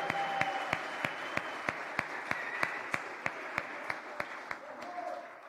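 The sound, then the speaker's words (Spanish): A church audience applauds together for a missionary couple marking their first year of mission, a steady wash of many hands clapping at an even level, with a sharper clap cutting through at regular intervals for the whole stretch. “Démosles un aplauso a ellos.”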